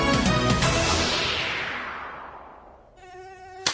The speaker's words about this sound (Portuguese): mosquito esquisito, sai fora do meu quintal.